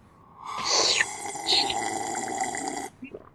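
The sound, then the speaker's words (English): A person takes a loud sip of water, a long airy slurp with gurgling, whistly edges lasting a couple of seconds before trailing off. “I'm gonna sip some water.”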